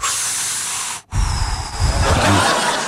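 Loud, close breathing through the nose: a long hissing breath, a brief silent pause, then another rougher, airy breath that carries on to the end. No one speaks.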